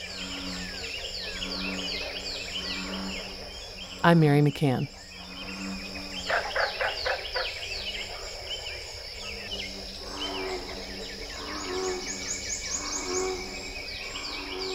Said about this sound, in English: Let's listen again to America's Ark as bullfrogs sing alongside northern cardinals and prothonotary warblers.